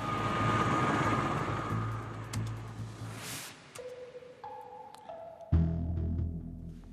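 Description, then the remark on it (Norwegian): Steady loud engine drone with a low rumbling throb and whining tones of a helicopter on a trip out to offshore work in the North Sea, fading briefly midway before the heavy low rumble returns. No voices. “I tillegg så er helikopterturene ut er det jo støy på i, seg sjøl.”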